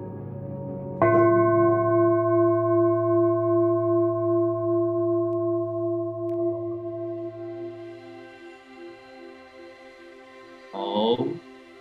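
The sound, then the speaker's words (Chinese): A Nepalese healing singing bowl is struck once to open a meditation session and rings with a steady, layered metallic hum that slowly fades over several seconds, before a voice briefly begins speaking at the end. “大家随着这个颂钵的声音，可以慢慢的把你的心静下来。”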